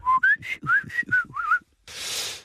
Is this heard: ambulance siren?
no